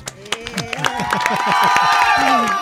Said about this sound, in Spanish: a quien quizás conozcan como paisajeante en sus redes sociales, que vino a conversar con nosotros y a quien por supuesto aplaudimos.